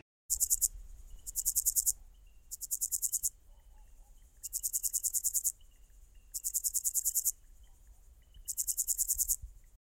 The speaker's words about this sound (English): Today, we talk about bush crickets. Here are some of the sounds they make.